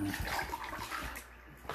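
Water pours and splashes steadily onto a couch in an accidental spill for nearly two seconds, a rushing, gurgling spill that eases slightly toward the end before a brief final splash.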